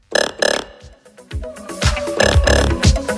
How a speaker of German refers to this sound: Der Sound stammt von einem Casio-Keyboard aus dem Jahr 1979.